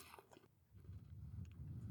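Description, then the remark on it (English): A crunchy kettle chip is bitten, giving a couple of sharp crackly snaps, followed by low, muffled chewing. No one speaks, and the sounds are fairly quiet overall. “it's got that really crisp crunch to it.”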